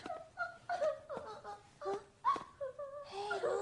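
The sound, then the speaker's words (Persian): Hermione, a girl, crying and sobbing in a series of short, wavering, high-pitched whimpers and sobbing breaths, broken by brief catches, moderately loud and continuous throughout without any clear words. “اون هرمیونه که داره گریه میکنه نکنه اتفاق بدی رخ داده بیا بریم ببینیم چیه باشه چه خبر شده هرمیون چرا گریه میکنی”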